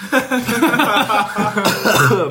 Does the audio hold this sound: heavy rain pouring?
no